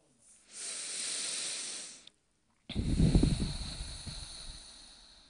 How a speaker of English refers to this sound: So so thank you so much for keeping me safe enough that we could land in this soft place here on the bed in this moment, breathing.